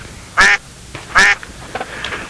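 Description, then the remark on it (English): Two loud, nasal duck quacks ring out about a second apart, each brief and harmonic-rich, followed by a couple of fainter, softer quacking sounds trailing off. “I love the duck.”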